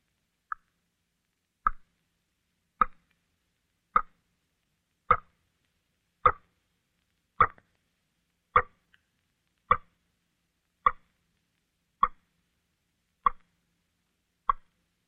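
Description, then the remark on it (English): Water drips slowly from a leaky faucet into a sink, about a dozen separate plops spaced roughly a second apart, each one clear with a short ringing tail, otherwise silent. “It was water dropping slowly from a leaky faucet into a sink or a bathtub.”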